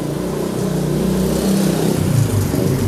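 A motorcycle engine revs loudly and close by, its low throaty drone rising and holding steady for a few seconds with no voices over it.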